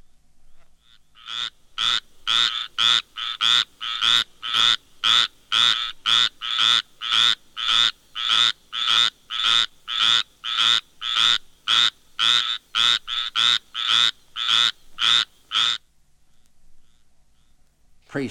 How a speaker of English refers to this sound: somewhat larger and quite different in appearance and voice, is the squirrel tree frog, Hyla squirella.